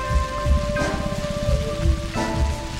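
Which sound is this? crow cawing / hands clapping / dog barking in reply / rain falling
rain falling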